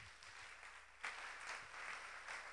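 A crowd of people applauding together at a Christian worship service, applauding the Lord after a prayer of thanks; a dense, steady patter of many hands clapping that swells slightly after a moment and continues without any voices.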